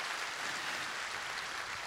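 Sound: audience applauding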